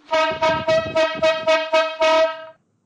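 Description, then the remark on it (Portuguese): A loud horn honks in a quick rhythmic string of about seven short toots, the final blast held a bit longer, then cuts to silence. “vamos lá, corneta aleatória, corneta aleatória do nosso episódio número 3.”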